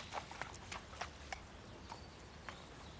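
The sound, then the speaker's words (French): Ponies ridden by children clip-clop at a steady walking rhythm, a series of sharp knocks over a soft outdoor background hiss. “Pendant ce temps, à quelques centaines de mètres de chez eux, les enfants de Martine font du poney.”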